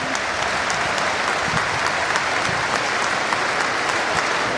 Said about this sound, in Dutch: Toch nog een doelpunt. Het is Kevin Kelsey. Dat is wel mooi. Het levert ook applaus op van Feyenoord. Ja, dit is mooi. Ja, dit vind ik mooi.